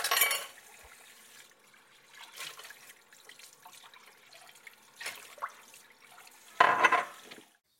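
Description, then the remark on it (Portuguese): Running tap water splashes into a sink while dishes are washed after a meal, with intermittent clinks of glass and crockery and a few louder bursts of spray, without any talking. “Após a refeição, Carolina começa a lavar a louça.”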